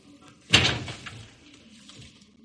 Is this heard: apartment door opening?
yes